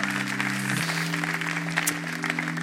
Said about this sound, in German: Oh, danke. Vielen Dank, Band. Wir machen das einfach. Ihr habt nachher noch so viel zu tun. Schleicht euch runter. Gebt denen einen Applaus. Ich glaube, die klang großartig heute Abend.